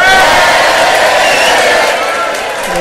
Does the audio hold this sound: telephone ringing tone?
no